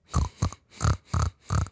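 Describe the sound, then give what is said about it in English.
A voice imitates a pig, oinking five times in a steady rhythm: short, rough, nasal grunts of similar loudness with brief gaps between them and nothing else around them. “Oink oink，你会学小猪叫吗？”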